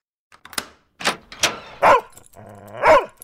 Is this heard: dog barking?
yes